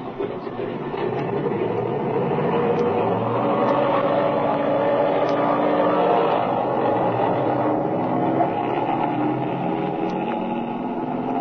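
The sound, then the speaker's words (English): A loud, steady airplane engine, already warmed up, roars as the plane takes off, a dense droning rumble that swells slightly midway, with no voices. “The engine's been warmed up already. All right, kid, turn it loose.”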